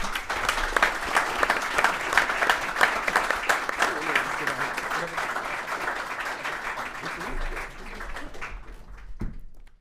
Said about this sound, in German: vor allen Dingen auch jetzt bitte einen großen Applaus für diesen beiden, die, die, die, die im Wesentlichen mitgedacht in den letzten Jahren getragen haben. Vielen Dank.